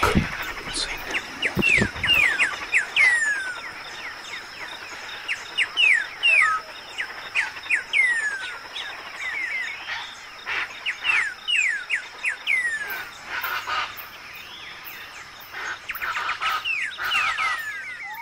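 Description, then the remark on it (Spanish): A dawn chorus among the high Chaco forests, many birds singing at once, with bright, rapid downward-sweeping chirps and whistles overlapping continuously, over a steady high insect-like hum. “Se escucha el amanecer entre los chacos altos.”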